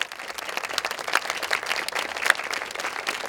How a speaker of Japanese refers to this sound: それでは皆様拍手でお迎えくださいどうぞよろしくお願いいたします